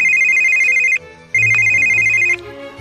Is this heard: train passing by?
no